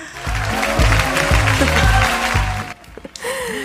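Audience applause, a dense, steady clatter of clapping over a low, rhythmic musical bass line, holding loud for about two and a half seconds before dropping off abruptly.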